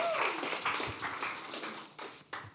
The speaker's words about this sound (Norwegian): Jeg syns de skal få en applaus, jeg.